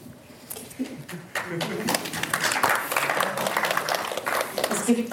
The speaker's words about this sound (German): Beifall dafür aus dem Publikum.